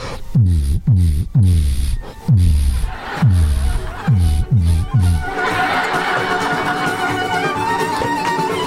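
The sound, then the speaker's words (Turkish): A voice mimics deep car subwoofer bass, pumping out about eight rhythmic low booms with falling pitch, loud, before giving way to a noisy crowd-like wash. “Yalnız tam subwoofer gibi değil miyim ya?”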